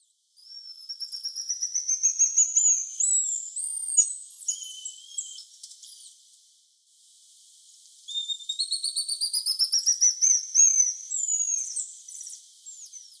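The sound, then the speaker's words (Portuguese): High, thin whistled calls repeat in rapid rising and falling trills, a small group of about half a dozen black lion tamarins moving in trees and calling in two long bursts separated by a brief pause, clear with no talking. “Daí, do nada, em um dos dias de campo, eu ouvi uma vocalização bem característica de alguns animais se mexendo em árvores.”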